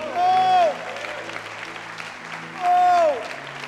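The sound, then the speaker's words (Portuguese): An audience applauds steadily throughout, giving a shout to the Lord, with two loud, drawn-out cheering shouts rising above the clapping, one near the start and another toward the end. “Dê um brado ao Senhor e aplaudam mais uma vez aqui.”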